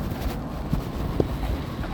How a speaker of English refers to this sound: Um, wow, it's really windy, and I'm really sorry about that, but just, you know, just imagine that we are actually on a walk together.